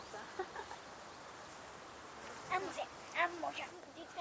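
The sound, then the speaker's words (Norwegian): Hens cluck: a few soft, short calls early on, then a livelier cluster of clucks toward the end over a faint, steady background hiss. “men de skal finne sin plass, det, så det er Noen høner for det”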